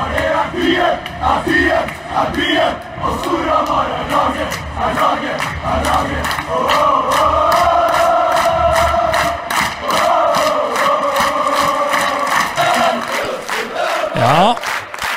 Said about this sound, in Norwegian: Vi hørte lydklipp fra Manglerudhallen, romjulsfest der.